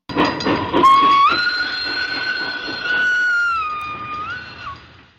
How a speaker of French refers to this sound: en tout cas pas pour aller jouer au Royal Colombo, parcours sur lequel, si vous passez outre l'obligation de jouer avec un caddie maison qui ne connaît rien au golf, votre concentration pourrait être troublée par le train.